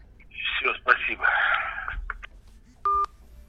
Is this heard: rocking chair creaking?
no